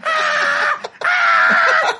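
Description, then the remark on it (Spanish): A person shrieks two long, loud, piercing cries in a row, imitating about 30 screaming chimpanzees surrounding a single small monkey, each cry held for most of a second with a brief gap between them. “y ya de repente, güey, ves a un solo changuito, güey, y lo rodean 30 chimpancés, todos gritando.”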